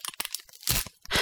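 Sticky tape being ripped off a wall: a few quick crackling tugs, then two longer, loud, harsh tearing rasps. No voices are heard.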